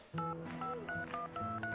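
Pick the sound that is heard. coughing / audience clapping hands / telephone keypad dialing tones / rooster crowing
telephone keypad dialing tones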